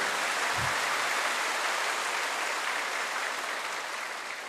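A crowd applauds steadily, a dense, even wash of many hands clapping at once that holds for several seconds and eases off slightly at the end, with no voices.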